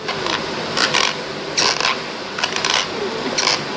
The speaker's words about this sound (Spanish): ¿Entonces le rechinan los dientes a tu mujer?